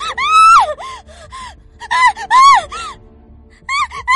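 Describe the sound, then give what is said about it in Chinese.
A man lets out three loud, shrill screaming howls while crawling backward, each swelling and then falling in pitch, separated by brief gaps of near silence. No speech accompanies them. “廖威发出尖锐的吼叫，爬着后退的身体随着声音震动三下，地面旋即被渗出的鲜血染红。”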